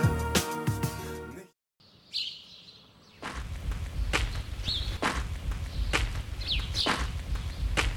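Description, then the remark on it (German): A brief burst of music cuts to silence, then birds chirp and tweet in a garden in spring sunshine while a man's steady footsteps crunch along at an unhurried walking pace. “Frühling im Garten. Die Sonne scheint, die Vögel zwitschern, ein Mann geht in aller Ruhe spazieren.”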